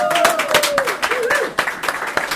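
An audience claps steadily in a dense burst of applause, with a sharp whistle and some cheering rising over the clapping, fairly loud.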